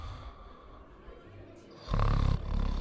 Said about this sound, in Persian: خروپوف شکارچی ها دوباره اوج می گیرد.